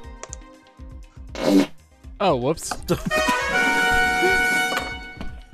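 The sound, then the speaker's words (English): A cartoonish fart sound effect played from a soundboard blares with a wobbling, buzzy pitch that bends up and down, followed by a sustained tone, while people talk and laugh around it. “did you just put a fart on the soundboard?”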